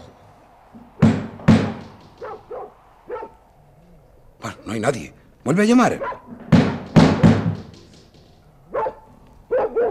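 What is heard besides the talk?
dog barking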